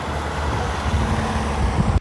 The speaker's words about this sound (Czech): Přes takzvanou Českou Sibiř vede jen stará silnice. Většina obcí má obchvat, ale třeba Miličínem dodnes jezdí auta přímo kolem domů